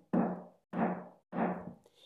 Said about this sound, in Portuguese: Mas um dia apareceu um lobo e bateu na porta da casa de palha